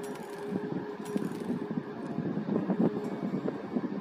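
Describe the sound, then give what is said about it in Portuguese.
A steady wash of sea waves rumbles and hisses at moderate volume, swelling and easing softly with no clear breaks, with a faint breezy texture and no voices. “Então, a cada barulho do mar, a cada brisa que você sentir, pense no dinheiro caindo dentro dessa bola.”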